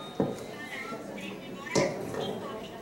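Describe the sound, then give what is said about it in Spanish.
A small talking watch announces the time in a thin synthetic voice, with two sharp button-like clicks, one near the start and another partway through. “aquí traigo mi reloj que me dice la hora.”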